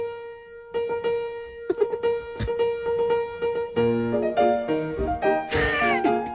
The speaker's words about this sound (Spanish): Pero lo que estamos escuchando es el vals número uno.